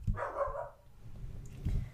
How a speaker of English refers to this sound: Yep, this dog agrees with me as well.